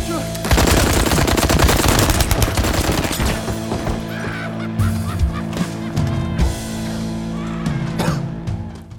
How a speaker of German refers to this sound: Aber es wird auch mit Maschinenpistolen geschossen.